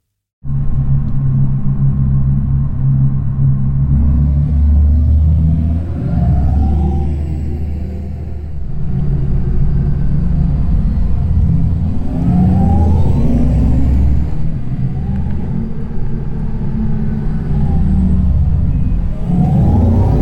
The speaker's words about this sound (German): Das ist die Theorie und wie das dann ganz praktisch klingt bei Audi, hört man sehr schön am neuen Audi e-tron GT. Hier klingt der Sound dann so.